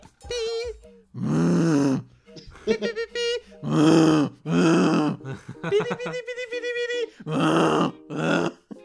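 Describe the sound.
A voice imitates a phone alarm, alternating short sung, beeping melody phrases with loud, low, buzzing hums that mimic the phone vibrating, repeating several times in an uneven back-and-forth pattern.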